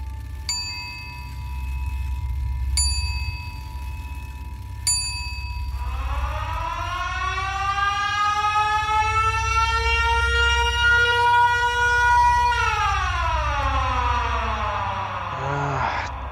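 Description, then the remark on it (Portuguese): Three ringing bell-like dings, then a siren wails for about ten seconds, slowly rising, holding, then sliding down, over a steady low rumble. It is heard in the early morning around three a.m., coming from far away. Nobody speaks. “Toda madrugada eu ouvia uma sirene. Ela vinha de bem longe, eu eu não sei, é, aquilo, aquilo começou a me incomodar.”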